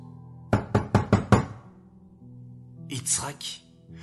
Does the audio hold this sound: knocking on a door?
yes